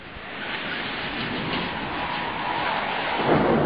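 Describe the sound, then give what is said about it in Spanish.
A continuous, heavy roll of thunder during a lightning storm rumbles through a stormy wash of noise, holding steady and swelling slightly louder toward the end, with no voices present. “El fulgurante resplandor de los relámpagos permite identificar a una de ellas”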